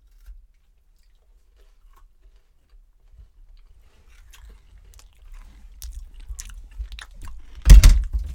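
Someone chews a crunchy snack, starting quietly and building into louder, irregular crunches and wet bites, ending with a sharp, heavy crunch near the end. No one speaks.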